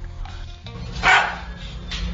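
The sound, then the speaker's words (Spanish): A parrot mimics a dog's bark: one sharp, loud, bark-like yelp in the middle, then a softer echoing call, over a low steady background hum. “O sea, ladra idéntico a los perros, imagínense.”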